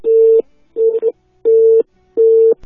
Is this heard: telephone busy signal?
yes